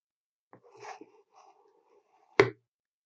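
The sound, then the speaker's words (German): The plunger of a French press of coffee is pushed down early in the morning: soft scraping and faint gurgling for about a second, a quiet pause, then one sharp, brief clunk. No one speaks. “Ja, das war French Press Live.”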